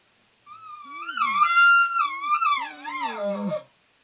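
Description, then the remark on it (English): An imitated bull elk contact bugle, a call asking a cow where she is: one high, wavering whistle-like call lasting about three seconds, sliding up and down before dropping into a lower, raspy tail. It is fairly loud, with no talking. “He might hit you with this contact bugle.”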